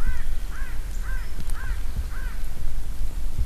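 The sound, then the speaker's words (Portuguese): A crow caws five times in a steady, evenly spaced series of harsh arched calls over a constant low rumble of outdoor background noise, in a landscape burned by wildfire. “Camuflado na paisagem, um corvo rasga o silêncio.”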